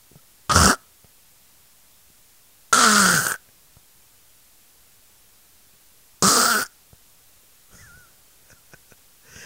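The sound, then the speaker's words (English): A person imitates a man's loud snoring with three harsh, rattling snorts spaced a few seconds apart, followed by a few faint small sounds. No one speaks. “But it's kind of something, you know, along his snoring is more like”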